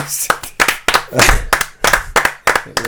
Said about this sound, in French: Il applaudit.